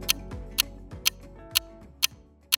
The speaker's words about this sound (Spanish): Pero claro, es el reloj de bolsillo que tiene este personaje de esos relojes que todavía quedan algunos en, algunas de las casas o de pronto en la casa de la tía, de la abuela